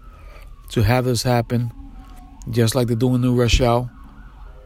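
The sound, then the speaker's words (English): A faint ambulance siren wails outside, its tone sliding under a man's steady talking as he records inside his car; his voice dominates the foreground throughout. “Um, there was an ambulance out there.”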